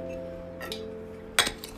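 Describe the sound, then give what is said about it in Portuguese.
A glass clinks a few times while someone drinks water: one sharp, bright ring stands out among softer taps over a steady low hum, with no talking. “Tomar uma água primeiro, pra não.”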